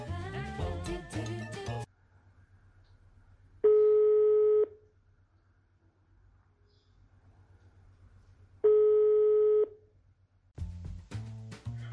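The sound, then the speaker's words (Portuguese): A telephone ringback tone sounds twice in a staged mock phone call from the Anonymous Gourmet, each a steady electronic buzz about a second long with long silent gaps, loud and clear between bursts of music at the start and end. “Imagina só como é que seria uma ligação do Anônimos Gourmet com o Jaquim.”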